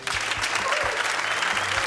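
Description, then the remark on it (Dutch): A live audience of the show Wielerclub Wattage applauds steadily for Dirk de Wolf, Jan Bakelands and Tom Bonen, a dense wash of clapping hands that fills the whole stretch at a fairly loud, even level, with faint low voices murmuring underneath. “Graag een applaus voor drie gevestigde waarden.”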